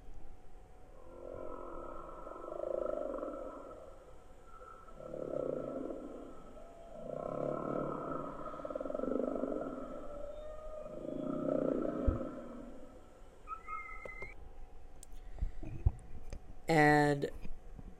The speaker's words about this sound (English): And, and whales can also make kind of like very gentle growling sounds.